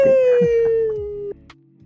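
A siren-like wail holds one steady, loud tone that slowly slides downward for over a second, then cuts off abruptly, leaving faint low murmuring and a couple of soft knocks.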